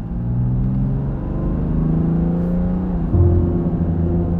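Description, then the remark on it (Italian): A car engine hums steadily on a motorway, then its pitch climbs as it accelerates, with a gear shift near the end and the revs rising again. It is loud, with no voices. “Sull'autostrada, forse un sorpasso azzardato, forse la pioggia, forse chi lo sa.”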